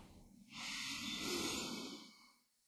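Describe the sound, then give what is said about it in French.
A single long, deep breath drawn in during a guided breathing exercise, a soft airy rush that swells over about two seconds and then fades, quiet, with no talking. “Allez-y, inspirez.”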